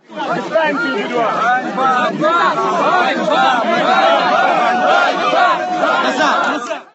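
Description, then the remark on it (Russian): A dense protest crowd of many voices shouts and clamors together at police, crying "Ganba! Pozor!" (Shame!), loud, with overlapping raised calls forming a continuous, agitated roar for the whole stretch. “Собравшиеся кричали полицейским «Ганьба!”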